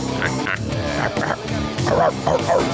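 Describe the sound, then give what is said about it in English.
A loud, gritty rhythm track played on a keyboard, with a growling, snarling texture like an angry dog, pulsing steadily throughout with bursts of rasping midrange tone over a dense low rumble. “It's a nasty rhythm track he's putting down back there. It's all like a dog that's like snarling.”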